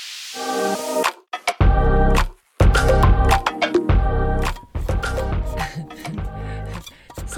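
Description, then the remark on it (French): A thermos flask of tea being handled, with a series of loud metallic clunks and ringing, squeaky tones in irregular bursts, separated by brief pauses, and no voices. “C'est le bruit du thermos.”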